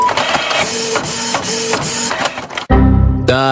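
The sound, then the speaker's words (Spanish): A printer runs with rhythmic mechanical clacking and whirring, then abruptly shifts to a low grinding buzz and a rising whine as it jams, loud, with no voices. “A Marcos se le murió la impresora.”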